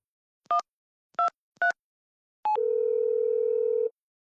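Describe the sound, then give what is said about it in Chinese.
Three quick dual-tone keypad beeps at an uneven rhythm, then a steady, low-pitched telephone tone that holds for over a second, as someone hurriedly phones a police officer and the call connects. No voices. “他慌忙的给裴然打了个电话。”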